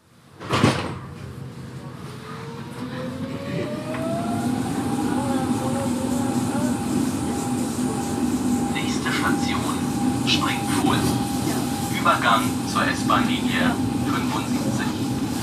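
An S-Bahn commuter train at the Marzahn S-Bahn station, opened in 1976 and named after the small marshy pond Springfuhl: a sharp clunk, then a rising electric motor whine as the train pulls away, settling into a steady hum over rumbling wheels with intermittent squeaks.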